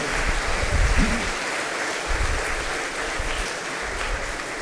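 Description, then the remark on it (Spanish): A crowd claps steadily for several seconds, applauding the day's performance, a dense, even patter of many hands with no pauses, fairly loud throughout. “Le damos un aplauso, se lo merecen.”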